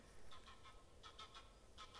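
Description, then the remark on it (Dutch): Faint geese honk as they fly past in short repeated bursts, a few calls in quick succession, then a pause and another pair, over low steady outdoor background noise with no talking. “Nou, er komen nog wat eh, ganzen voorbij.”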